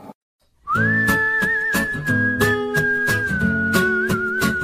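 A song opens with a clear, sustained melodic whistle gliding over a steady band backing with regular rhythmic hits, loud and close after a brief moment of silence.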